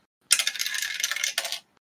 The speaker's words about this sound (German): ich nehme die Rolle, ähm, verbrauche meine Aktion, spreche die, die wiederherstellenden Worte und werfe drei D4. Äh, das ist schon mal geil, das ist eine 1.